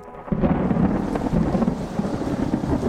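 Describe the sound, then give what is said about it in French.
A thunderstorm on the shores of Lake Geneva rumbles with a deep, sustained roll of thunder over steady rainfall, loud, filling the whole stretch without any voices. “Ce 16 juin 1816, sur les bords du lac Léman, le temps est à l'orage.”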